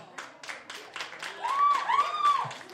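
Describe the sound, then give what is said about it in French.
An audience applauds to vote, in steady, rhythmic bursts of claps, with a few whistle-like rising and falling tones cutting through the middle of the applause. “Moi, il y a du monde qui applaudit fort.”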